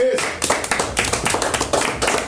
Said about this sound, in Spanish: Gracias. Vamos Un aplauso para estos cabrones.